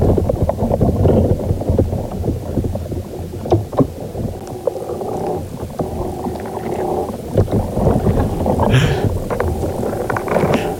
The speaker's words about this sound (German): Also Leute, ihr seid da, ähm, neues Radio ist nicht kaputt. es sind, ihr lasst da gerade Aufnahmen von unter der Erde, also noch nie gehört diese Aufnahme. aufgenommen von Sounding Soil, ein Projekt ähm, hier in der Schweiz